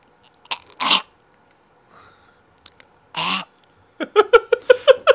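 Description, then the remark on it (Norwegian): A person imitates the strangled, raspy meow of a cat that cannot meow properly because of a throat condition: two harsh, breathy rasps separated by a pause, then a quick run of short, choked, voiced squeaks. “Uh, katta kan jo ikke mjaue heller, for han har en eller annen uh, strupegreie av noe slags.”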